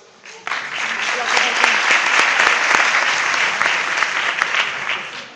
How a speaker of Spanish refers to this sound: Gracias. Un aplauso.